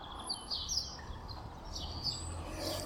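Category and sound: bird, birds chirping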